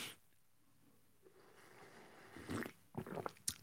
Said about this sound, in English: Hold on, early sip of the day coming up.